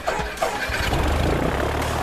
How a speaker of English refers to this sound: As the late pilot rushes up to the hangar, he's just in time to see Boeing turn the plane into the wind, gun the engine, and lift off.